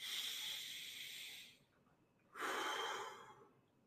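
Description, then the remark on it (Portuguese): A slow, deep breath drawn in with an airy hiss, a brief pause, then a fuller, rushing exhale, taken with eyes closed during a guided visualization exercise. Clear, with no talking. “E fechando seus olhos, respirando uma vez, duas vezes,”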